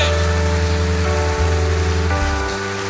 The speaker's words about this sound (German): Komm, wir geben ihm gerade mal einen mächtigen, gewaltigen, königlichen Applaus.